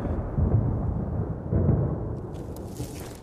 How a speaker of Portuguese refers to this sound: Para começar, tiveram azar o céu estava carregado de nuvens negras que ameaçavam chuvadas. A trovoada aproximava-se.